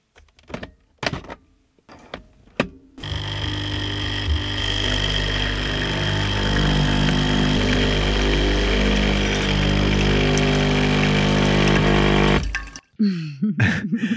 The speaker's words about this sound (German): Jetzt reden wir kurz über die Kapselmaschine. Die klingt so unaufregend.